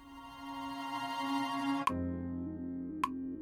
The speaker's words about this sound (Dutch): En daar hoor ik al het alarm. Daar komt de test.